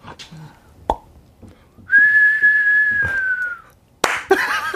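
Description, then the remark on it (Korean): A person whistles to imitate a firework of the kind formerly called 'pogeumtan' (포금탄): a long, steady high whistle that slowly dips in pitch, followed by a sharp burst, with a few clicks and pops before it. “어, 예전에는 그 불꽃놀이가 아니라 그 명칭이 포금탄이라고 해서 포금탄.”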